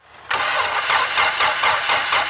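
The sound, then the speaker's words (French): A car engine cranks over and over in a steady, rhythmic grind, loud, without clearly catching, like a starter struggling to turn the motor over. “Imaginez votre voiture qui fait des siennes un matin”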